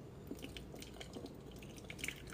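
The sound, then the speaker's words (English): Hot water poured slowly in a thin, uneven trickle into a mix being stirred, with soft dripping and splashing sounds. It stays fairly quiet and continuous, and no one speaks. “So go ahead, pour slowly.”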